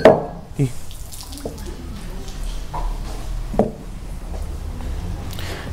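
Water sloshes and drips in a drinking glass during a church study session, with a few sharp clinks and taps spread unevenly over the few seconds, over a low background hum.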